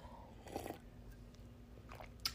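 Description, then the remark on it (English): A quiet sip of coffee: one brief slurp, then faint mouth sounds and a small click near the end, with no talking. “I got my coffee, of course. So let me take a little sip.”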